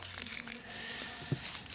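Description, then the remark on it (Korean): Soft, continuous paper crinkling and rustling as a small, tightly rolled paper fortune slip for the snake zodiac sign is unrolled, curling back up as it is opened, with a few sharper crackles along the way; faint, and no one speaks. “아, 진짜 또 단단하게도 말려 있습니다. 예, 펴지다가 다시 오므려지고”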